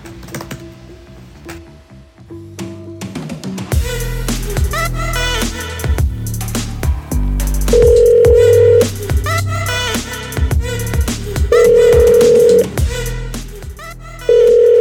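A steady phone dial tone hums beneath keyboard clicks, then a telephone ringback tone sounds in evenly spaced one-second bursts, clear, with no one talking.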